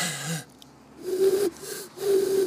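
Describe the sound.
A voice imitates an eagle owl, giving a quick breathy intake followed by three low, steady hoots in a loose rhythm, moderately loud with no talking.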